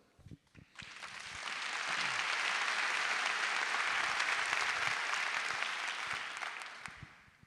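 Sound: audience applause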